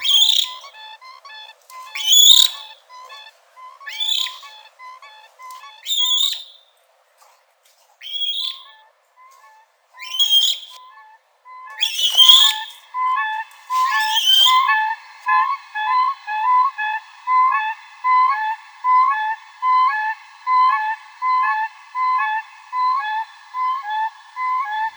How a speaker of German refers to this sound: Ja, klingt ein bisschen anders als unsere hiesigen Kraniche, ist ja auch eine andere Landschaft. Trägt der Laut auch ein bisschen weiter als bei uns, denn da steht ja nicht viel im Weg.